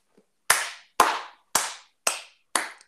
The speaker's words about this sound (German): Jetzt bitte nicht mehr klatschen.